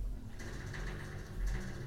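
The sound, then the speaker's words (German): A refrigerator rattles and buzzes steadily with a low mechanical hum, a continuous vibrating drone that swells slightly near the end, with no voices. “Oh, ähm, ist unser Kühlschrank, wenn man das jetzt gerade gehört hat, der nee, macht manchmal glaub, so Geräusche.”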